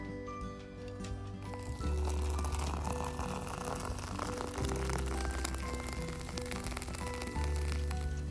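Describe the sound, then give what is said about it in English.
Coffee pours steadily into a mug for several seconds, a continuous splashing trickle with a low hollow resonance that shifts slightly as the mug fills. No one speaks. “So, coffee cheers, my friends, to a brand new day because this is the sound of heaven.”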